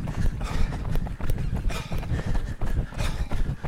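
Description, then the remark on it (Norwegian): Horse hooves trotting in a steady, quick clip-clop rhythm, loud and continuous, with a possible brief whinny mixed in among the hoofbeats. “Vi hører at han jobber godt.”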